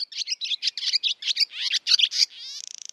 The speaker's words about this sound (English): So, to some extent, nature is falling silent around us. So why not draw the best attention to that by just putting out pure bird song?